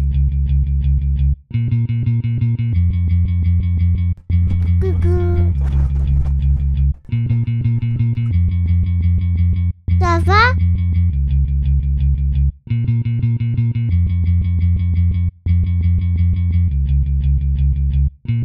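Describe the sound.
A short, bass-heavy musical phrase from an unidentified song repeats over and over in a loop, cutting out briefly every few seconds before restarting, while a voice briefly speaks over it.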